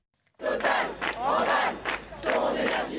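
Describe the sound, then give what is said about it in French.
A crowd of activists protesting against Total's financing of new fossil energy projects chants loudly in unison, voices rising and falling in rhythmic phrases with brief dips between shouts, filling the whole clip after a short silent start. “un peu à l'écart de la foule des militants”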